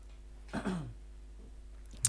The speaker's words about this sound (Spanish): Esa tos no me ha gustado, ¿eh? a mí no te me acerques.